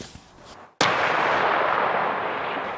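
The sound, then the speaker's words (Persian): A single powerful cannon blast from an Israeli tank firing at a target in Gaza, at the Gaza border with Israel, cracks out suddenly after a brief low rumble, followed by a long, loud reverberating roar that rolls and slowly fades across open ground. “مرز غزه با اسرائیل دوشنبه تانک های اسرائیلی به هدف در غزه شلیک می کنند.”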